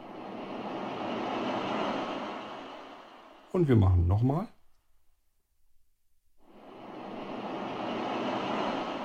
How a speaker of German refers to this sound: Klingt doch nicht schlecht, oder? Wie eine Brandung.